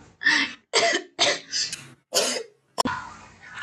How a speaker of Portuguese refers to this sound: Fui falar dele e comecei a tossir. Tá repreendido.